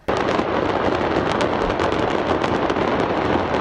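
A loud, continuous barrage of crackling and popping bursts as a fireworks factory in Hendek, Sakarya explodes. Sharp cracks pile densely on top of each other throughout, with no voices.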